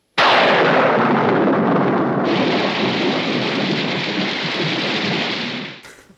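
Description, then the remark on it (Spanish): A sudden, loud downpour of heavy rain with a rumbling crack of thunder, a dense, steady roar that holds for several seconds before quickly fading out. No voices are heard. “¿Podría llover?”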